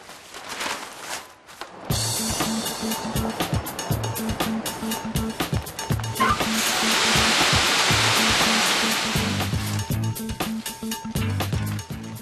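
A screed mixing pump runs, a loud steady mechanical roar with rhythmic low chugging pulses and a rushing hiss that swells midway through, as screed of sand, cement, water and chemical additives is mixed and shoveled into the pump; no one speaks.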